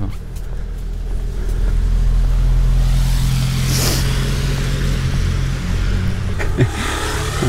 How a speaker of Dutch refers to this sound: brommertjes. De postbode rijdt voorbij.